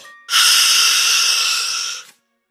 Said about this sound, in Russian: Ой, а это кто шипит? Это шипят кобры и удавы. Они ползают вокруг.